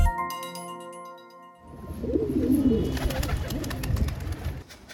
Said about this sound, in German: So hört es sich in einigen Stadtvierteln in Kairo an, wo in hohen Holztürmen auf den flachen Hausdächern Tauben gezüchtet werden.